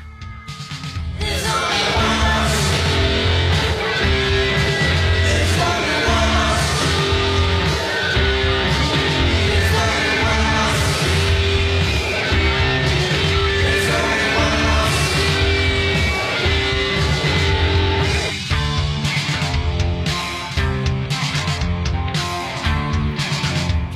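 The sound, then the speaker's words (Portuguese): A loud, dense rock song from a band's fifth album, released in 2018, plays steadily throughout, with pounding drums, thick distorted guitars and shouted vocals, briefly dipping near the end before surging back in full force. “Certíssimo que a gente vai até escutar um pouquinho agora, ó.”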